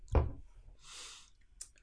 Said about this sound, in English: so uh, cheers. Cheers. Mm. Getting that sip going, baby.